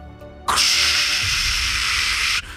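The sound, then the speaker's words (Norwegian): An emergency flare snapped in two and ignited: a sharp onset bursts into a loud, steady, bright hissing rush that holds for about two seconds, then cuts off abruptly. No one speaks. “Jeg har jo sånn der nødbluss her. Jeg tar og knekker det i to.”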